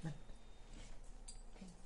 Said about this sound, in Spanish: Oye, subió uno de mis perros, mira, te muestro mi perrita.